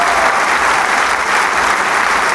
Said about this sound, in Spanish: Ante el aplauso más que generoso, anticipado y también no anticipado. Una delicia disfrutar esta novena sinfonía de Beethoven. en este maravilloso recinto del Teatro Isauro Medicinal.